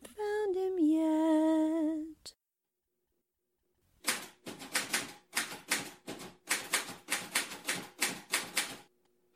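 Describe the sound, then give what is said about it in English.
A brief descending musical tone gives way to silence, then a typewriter clacks loudly in quick, uneven bursts of keystrokes as someone types tomorrow's column, with no one talking. “are you finished typing tomorrow's column yet?”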